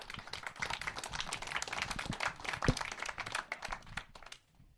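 Scattered, uneven clapping from a few people, the claps irregular and unhurried rather than a steady round of applause, trailing off into quiet at the end.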